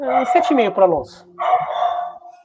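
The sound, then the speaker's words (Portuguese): A Yorkshire terrier and a Schnauzer bark in a quick cluster of sharp, yelping calls, mixed in with a man talking; the barking tapers off as the speech carries on. “Desculpa pelos cachorros aí.”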